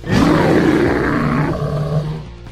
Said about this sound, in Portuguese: Ele avança para cima de você com um rugido.